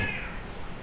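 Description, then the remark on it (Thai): A stray cat named Prasert, which visits the house, lets out a single short meow during a recording, clear, with a slightly strained tone against a low background hum; no one speaks. “อันนี้เสียงแมวนะฮะจริงๆผมก็ไม่ได้เหงาสักทีเดียวผมมีแมวอยู่ด้วยนะครับมาตอนนี้ชื่อว่าประเสริฐประเสริฐไอแมวหลงนะฮะที่มันก็วนเวียนอยู่กับผมนะท่านี้แหละพอแวะมากินข้าวแวมานอนที่บ้านบ้างตอนกำลังอัดอยู่มันก็ร้องแมวแมวแมว”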